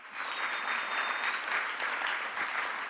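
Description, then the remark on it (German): Steady audience applause, a dense wash of many hands clapping at an even, sustained loudness for about three seconds, with no voices over it. “Kann man einen großen Applaus.”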